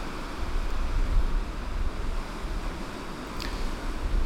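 Baltic Sea waves wash onto a shore in a steady, continuous roar with a deep rumbling low end and a hint of wind. The sound stays fairly even throughout, with no voices.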